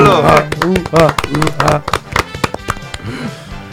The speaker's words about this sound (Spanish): Pues que hemos llegado a mil seguidores. Un aplauso, por favor.